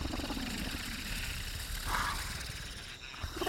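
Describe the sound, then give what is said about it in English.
A low, warbling, strange cooing call from an unknown creature in the dark rumbles steadily for several seconds, with a brief higher-pitched coo rising partway through; fairly loud, with no one speaking. “Now, as I get closer, I'm picking up a sound, and I hope my mic can hear this low warble that it's making like a strange cooing sound.”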